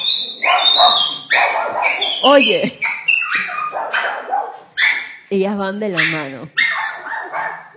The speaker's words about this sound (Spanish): Ay, Dios mío, estos perritos.